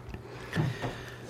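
Soft, wet mouth smacks from someone with a sore throat sucking on a throat lozenge in a studio: a couple of brief clicking smacks in quick succession against a quiet background, with no talking.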